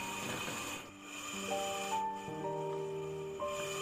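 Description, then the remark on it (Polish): A mechanical ventilator breathes for a young girl through a tube with a raspy whoosh, pauses briefly, then carries on under a steady electronic hum with shifting beeping tones, fairly quiet, with no one talking. “E, Za nią ten dźwięk oddechu, który jest oddechem mechanicznym, a nie waszego dziecka”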